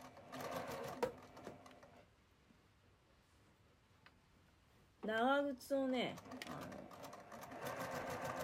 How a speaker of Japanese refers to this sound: さあどうだろう袖がうまく縫えてるだろうかあゆっくり縫ってるからねうんオゲオゲなかなかねいい感じだと思いますよ